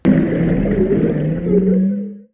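A low, drawn-out whale call moans steadily for a couple of seconds with a rich, rumbling tone, loud, then fades out with no voices present.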